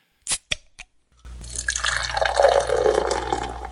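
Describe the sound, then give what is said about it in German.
A few quick clicks and taps, then a steady splashing pour of beer into a glass, fizzing and bubbling as it fills and forms a foam head, with no voices. “Mmh, lecker mit Schaumkrone sogar.”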